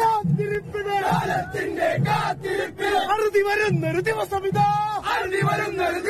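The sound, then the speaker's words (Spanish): A large crowd of Indian supporters of Argentina's football team sings their own chant together, loud, with many voices rising and falling in unison and a steady beat driving the song. “Y en este marco hicieron también los hinchas indios de Argentina no habla mucho nuestro idioma, pero hicieron su propio tema, le ponen bastante onda vamos a escucharlo, capaz nos gusta y queremos usar esta como tema del mundial.”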